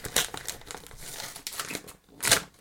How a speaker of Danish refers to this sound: Nu kommer jeg jo til at papirslarme lidt.